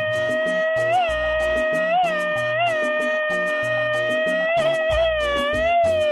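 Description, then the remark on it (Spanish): A loud shouted yell, a so-called machine-gun grito, held on a high, steady pitch for several seconds, broken by rapid staccato pulses that rattle along like machine-gun fire. “Porque en Moscú nos pidieron un grito ametralladora.”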